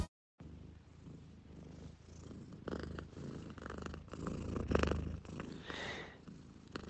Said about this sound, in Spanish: Eh, aquí con mi gata ronroneando, os querría hacer una pregunta.